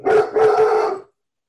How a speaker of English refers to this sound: Okay, sorry. It's my doggy. Okay. I got a fur baby. I, got, I have two fur babies.